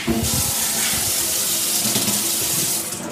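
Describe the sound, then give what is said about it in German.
Tap water runs steadily into a pot, a continuous rushing hiss with a hollow, resonant tone underneath as the vessel fills, fairly loud with no voices. “Der Topf wird mit Wasser gefüllt.”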